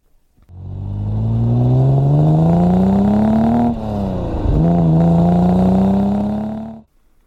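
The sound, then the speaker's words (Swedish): An Aston Martin DB6 engine revs loudly, its deep throaty tone climbing steadily in pitch, dipping briefly midway, then rising again before cutting off. No one speaks. “Vi lyssnar lite grann på hur en DB6 låter.”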